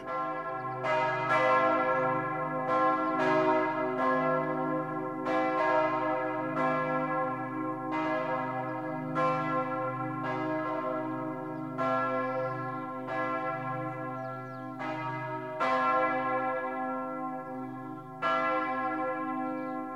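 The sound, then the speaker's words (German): Several church bells ring in Christmas, pealing together in a full, continuous ringing, their overlapping strikes repeating in an uneven rhythm over a steady low hum, loud with no voices. “Glocken läuten die Weihnacht ein.”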